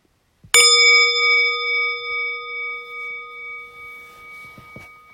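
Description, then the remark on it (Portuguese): A single meditation bell is struck once during a meditation session, giving a clear bright strike followed by a long, shimmering ring that slowly fades with gentle pulsing over several seconds. No one speaks. “Então desliza na expiração e se aquieta e eu vou convidar o sino a soar mais uma vez.”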